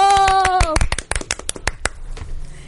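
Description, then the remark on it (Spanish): A small group in a studio booth claps to welcome a guest, a quick scatter of sharp, uneven handclaps that thins out within about two seconds, opening with a brief sustained vocal cheer. “Démosle un aplauso.”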